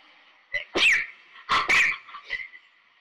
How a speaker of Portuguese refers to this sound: É, pera que eu vou espirrar.